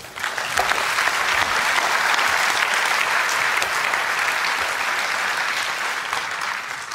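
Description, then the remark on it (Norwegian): An audience applauds on stage at an event to thank the Philadelphia audience (Philadelphia menighet) in its building. A dense, sustained wash of clapping with no voices over it holds loud for several seconds and eases only slightly at the end. “Det syns jeg vi skal gi dem en applaus for.”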